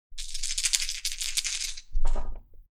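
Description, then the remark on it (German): Four dice rattle steadily for nearly two seconds, as if shaken in a cup, then tumble out onto a surface in a heavier burst of clattering knocks that quickly settles, rolled in a tabletop naval game to resolve a torpedo attack on a ship. “Vier Würfeln und drei Kategorien.”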